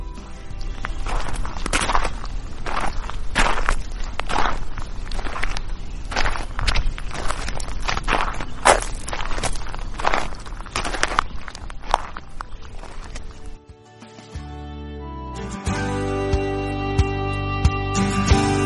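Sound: footsteps walking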